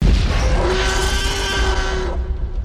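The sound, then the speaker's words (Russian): A deep, menacing reconstructed tyrannosaurus roar, recreated by a neural network using a bull's roar and amplified to match the dinosaur's size, rumbles loudly for about two seconds, heavy in the low end with a steady droning tone running through it, then fades out. No voices. “В итоге получился низкий пугающий рокот, больше похожий на шаги приближающегося ящера”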